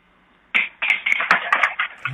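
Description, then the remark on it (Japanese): Someone stumbles into a chair in an outdoor courtyard smoking area, setting off a quick run of clattering knocks and sharp pinging clinks over a second and a half, fairly loud, with no voices. “つまずいてしまいました椅子になんかピキンピキンみたいな音がしたけど”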